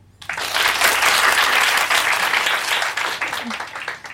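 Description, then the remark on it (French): An audience votes by applause on who prefers being too warm in their slippers: many hands clapping at once in a dense, steady wash that swells quickly and holds for several seconds before thinning slightly. “Par applaudissement, qui préfère avoir trop chaud dans ses chaussons”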